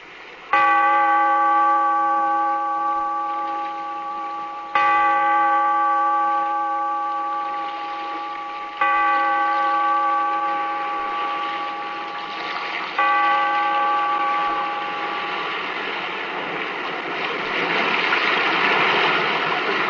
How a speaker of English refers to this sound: toll the bell, so that all may know we are gathered again in the Weird Circle